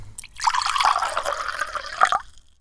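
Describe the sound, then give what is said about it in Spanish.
Water is poured into a glass to drink in one steady stream for about two seconds, splashing and gurgling before it stops abruptly. No one speaks. “Créeme que es un momento para, un buen momento para tomar un poquito más de agua.”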